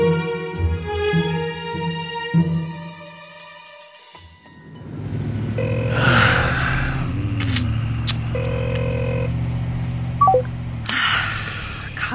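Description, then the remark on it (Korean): A phone rings with a repeated electronic tone pattern for several seconds and goes unanswered. The ringing then stops, giving way to a steady low rumble with a few faint beeps. “왜 전화를 안 받아?”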